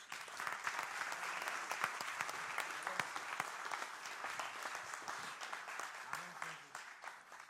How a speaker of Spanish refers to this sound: Dele palmas al Señor.